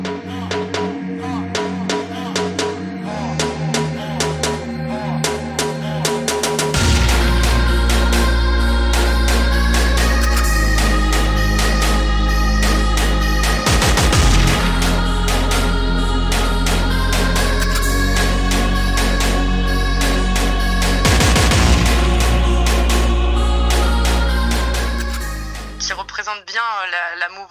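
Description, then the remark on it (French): An electronic track released in 2019, evolving in three phases, with layered synth tones, a very deep vocal and busy percussion hits; a heavy, booming bass drops in after a lighter opening, and the loud, dense mix with huge percussion holds before cutting out near the end. “un son en trois phases hyper évolutif, avec euh, beaucoup de synthé, euh, enfin un, vocal hyper profond et à la fin des énormes percus pas du tout prévisibles que, j'adore.”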